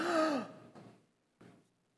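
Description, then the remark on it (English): A single voice imitates the gasps of a shocked crowd in a room as a man stretches out his hand, fairly loud: one long, voiced, rising gasp, then two shorter breathy intakes with brief pauses between them. “And you could just hear the gasps in that room.”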